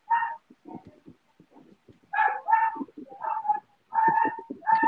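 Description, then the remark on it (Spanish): A dog barks and yelps repeatedly in sharp, loud bursts, mixed with lower whining sounds between the yelps, with no talking. “Oye, este, ¿qué le están haciendo ese pobre perro?”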